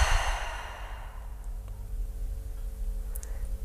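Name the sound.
breathing out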